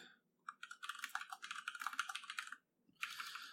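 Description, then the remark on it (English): Rapid typing on a computer keyboard, a dense flurry of crisp key clicks that runs for about two seconds, pauses briefly, then starts up again. “Because it's a lot of typing.”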